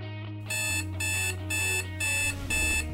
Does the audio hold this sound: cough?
no